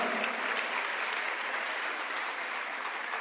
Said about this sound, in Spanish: Da un aplauso al Señor, porque esta es una palabra tremenda.